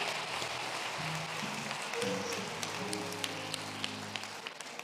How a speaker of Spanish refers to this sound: Alguien de un aplauso a Jesús.